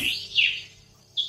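Birds chirp at dawn, around 5:30 in the morning, in a short burst of high, bright calls, a couple of sweeping notes with a gap before another brief tweet, fairly faint against a quiet background.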